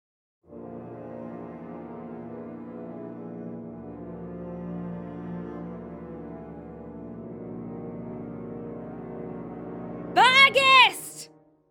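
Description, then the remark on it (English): A low, dark brass chord from four French horns and a tuba swells and holds steadily for about ten seconds, then a brief, sharp, high-pitched swooping burst cuts in near the end. “there are, I think, four low French horns and a tuba as well”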